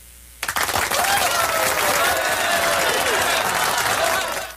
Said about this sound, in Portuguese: Os aplausos, a moção de aplauso do Jornal da Gazeta.